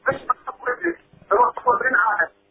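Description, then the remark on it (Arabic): Someone speaks over a telephone line, the voice thin, muffled and hard to make out, coming in steady bursts of talk with short pauses. “شكرا لك بس التليفون مو واضح”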